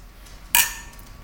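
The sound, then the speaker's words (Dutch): Two glasses of bock beer clink together once in a toast, a bright chime that rings briefly and fades, with only faint room noise around it and no talking. “Hey, klinken? Klinken.”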